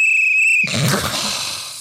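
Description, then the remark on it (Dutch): A single steady, high-pitched whistle holds one note for over half a second, then cuts off abruptly into a burst of broad rushing noise that slowly fades. “Mag ik de luisteraars opvragen om ons op Instagram of zo eh, gewoon even mp3'tjes of wafjes te sturen van fluiten die wel goed zijn?”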